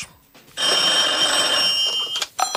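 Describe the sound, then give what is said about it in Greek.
Mobile phone ringtones ring loudly, a sustained bright electronic tone lasting about two seconds, then a brief second burst after a short gap, from MPs' phones in the Senate hall of parliament while Kasselakis addressed the parliamentary group. “Χθε, την ώρα που μιλούσε ο Κασελάκη στην ε, κοινοβουλευτική ομάδα και στην αίθουσα τη Γερουσία, οι βουλευτέ από κάτω είχαν ανοιχτά τα τηλέφωνα και κουδούνιζαν, όπω λέμε, χτυπούσαν δηλαδή τα ring tones, ακουγόντουσαν συνεχώ.”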